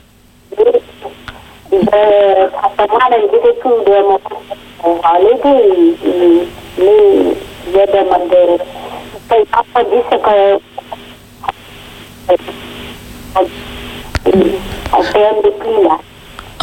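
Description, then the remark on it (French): A muffled, narrow-band voice of a French-speaking woman calling in on the air over a phone line keeps breaking up, with the speech dropping out in patches and leaving brief gaps of faint hiss before resuming. “En tout cas, ça, ça, coupe un petit peu, mais on peut déjà...”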